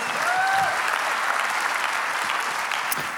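Steady audience applause welcoming two speakers onto the stage for a talk about friendship, a dense wash of many hands clapping at an even, loud level throughout with no pauses, and a faint whistle near the start.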